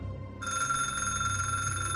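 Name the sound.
telephone ringing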